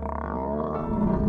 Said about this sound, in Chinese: 它有时候会说话，有时候会发出怒吼声，有时候会发出狮子的叫声。牛的叫声，